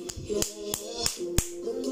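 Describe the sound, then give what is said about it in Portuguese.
Six crisp hand claps land in a steady, even rhythm, roughly three per second, over a sustained musical drone in the background. “Quanta hipocrisia! Palmas”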